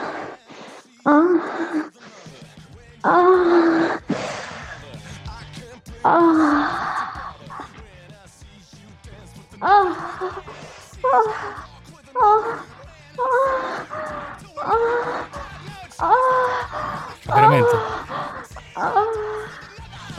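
A woman moans and gasps in pleasure over and over, heard over a phone call, in short, breathy bursts about a second each, fairly loud, with brief pauses between them and no other talking.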